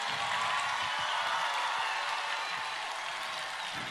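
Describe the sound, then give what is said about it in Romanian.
An audience of over seven thousand people at ITO 2017 in Iași, Romania, claps steadily for about four seconds in applause for Father Constantin Necula, a dense, even wash of hand claps at a fairly strong level with no voices above it. “Aplauze încă o dată pentru Părintele Constantin Necula.”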